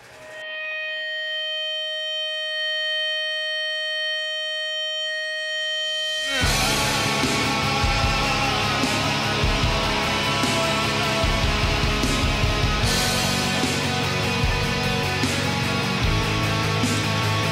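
A metal song opens with a few seconds of sustained, droning keyboard-like tones, then erupts into loud, dense distorted guitars and pounding drums that continue steadily to the end.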